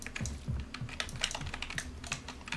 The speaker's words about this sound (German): Ich will die Taste so drücken, ne? Meine Hand ist zu schwach, um die Taste zu drücken.